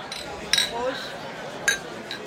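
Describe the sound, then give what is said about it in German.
Glasses of Altbier clink together in a toast at a crowded street gathering with beer benches, two bright, sharp chinks about a second apart with a softer third at the end, over a low murmur of background chatter. “Deshalb erstmal Prost hier.”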